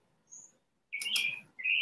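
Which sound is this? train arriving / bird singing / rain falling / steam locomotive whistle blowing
bird singing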